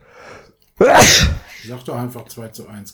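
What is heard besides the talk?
sneeze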